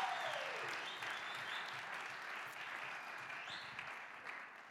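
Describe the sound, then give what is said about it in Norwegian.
An audience in a church applauds steadily for a few seconds to welcome a guest, a dense wash of many hands clapping at once, sustained at an even level without voices. “Vi kan gi han en applaus.”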